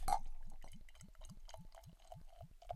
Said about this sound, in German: Wir schenken aber trotzdem ins Glas ein, weil wir ja natürlich auch die Farbe gucken wollen. Aha, hier tut sich schon was auf.